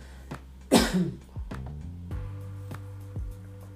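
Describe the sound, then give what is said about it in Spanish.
A single loud cough bursts out near the start, followed by quieter throat sounds and soft sips of water, with no talking. “Voy a beber un poquito de agua, pero si no voy a toser.”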